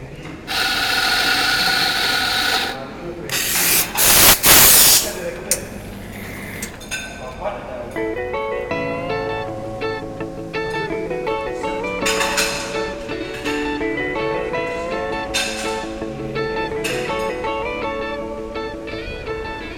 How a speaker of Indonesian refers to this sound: Nah, tadi intronya gimana? Ada suara-suara mesin-mesin kopi gitu ya. Kebetulan ini gue lagi ada di acara di Nusa Dua di Bali.